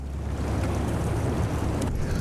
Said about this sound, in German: freut sich Michael Patterson im Boot auf dem dschungelgerahmten Essequibo-Fluss